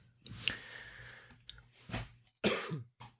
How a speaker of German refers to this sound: Ich musste kurz husten, sorry.